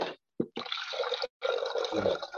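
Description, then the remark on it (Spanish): Water splashes and pours into a container to be heated, a steady hissing stream broken into a short burst and then two longer runs with a brief pause. No one speaks. “Voy a poner ya a calentar el agua.”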